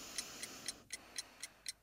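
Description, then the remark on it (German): An alarm clock ticks steadily at night, seven crisp, evenly spaced ticks about a quarter second apart, fairly quiet over a faint background hiss, with no voices. “Das Ticken vom Wecker, das Atmen neben mir”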